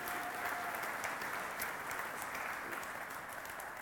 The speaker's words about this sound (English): All right, moms, give them a round of applause.